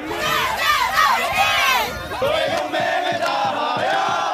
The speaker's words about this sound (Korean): 2019년 수능 시험장 풍경입니다. 수능 한파, 후배들의 응원소리, 함성, 매년 반복되는 익숙한 풍경이었는데요.